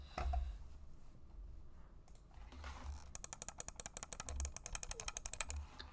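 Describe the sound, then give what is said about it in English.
After about three seconds of quiet low rumble, a wired computer mouse clicks rapidly, roughly two dozen sharp, crisp clicks in a quick, fairly steady rhythm, with no talking. “Just gonna say, because I'm still using a wired mouse, not the scroll wheel.”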